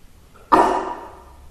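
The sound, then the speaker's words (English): One sudden, sharp sneeze bursts out after a faint breath, a loud noisy blast with a voiced edge that trails off over most of a second. No talking accompanies it. “Bless you.”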